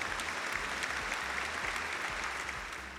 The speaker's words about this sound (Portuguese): Palmas pra ele. Puta merda, né? Vamos bater palmas pra ele.